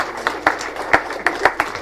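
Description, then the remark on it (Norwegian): A church audience applauding people after a prayer for them: a steady wash of clapping with several sharper, crisp claps standing out irregularly, moderately loud, with no voices over it. “Jeg tror vi må gi dem en skikkelig klapp.”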